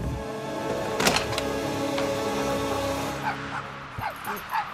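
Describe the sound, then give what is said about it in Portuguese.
Dogs bark in a few sharp bursts, then break into a string of high, excited yelps and whines as they rush inside through an opened kitchen door at night, leaping with joy, all over a steady mechanical hum. “No mesmo instante, os cães precipitaram-se lá para dentro aos saltos de satisfação.”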